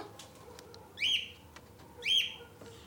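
A pet bird, Pablo, gives two bright, rising whistled chirps about a second apart from inside a bathroom, clear over a low steady background hiss, with no one talking.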